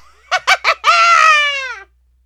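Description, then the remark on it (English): A voice does a Halloween witch's cackle: three quick, sharp bursts of laughter, then a long, high, wavering shriek that slides downward and fades. It is loud, with no other sounds. “This is a Halloween witch. I'm going to back off from the microphone because it's going to be a bit, well, witchy.”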